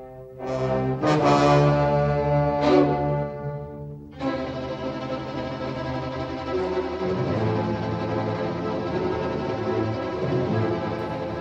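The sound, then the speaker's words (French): Ominous orchestral score from the 1955 Jacques-Yves Cousteau and Louis Malle documentary Le Monde du Silence (The Silent World), during a scene of divers and sharks: loud, sustained low brass-like chords swelling in layered blasts, then settling into a dense, brooding drone. No one speaks. “Est-ce que cette musique effrayante doit vous laisser imaginer”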